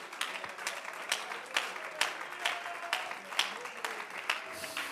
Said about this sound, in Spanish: El mejor aplauso que usted le haya podido brindar en el último tiempo de su vida, mientras usted lo aplaude, levante su voz en alabanza y dígale, Señor, yo recibo esta palabra.